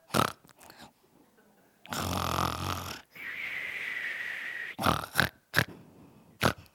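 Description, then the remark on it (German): Someone mimics snoring with their voice: a loud, rough rasping inhale followed by a whistling, nasal exhale, framed by a few short breathy puffs and snorts. “Und dann schläft man wieder ein.”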